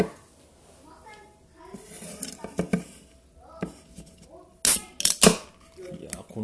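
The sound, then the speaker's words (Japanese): A can of All-Free non-alcoholic beer is cracked open: a couple of light handling clicks, then a sharp pop of the tab followed by a brief, bright fizzing hiss. “プッシュですわオールフリーに感謝ですね”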